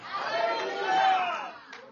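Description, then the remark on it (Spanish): A crowd shouts hallelujah together in one loud, sustained burst of many overlapping voices, holding for over a second before tapering off into scattered calls. “gritan aleluya.”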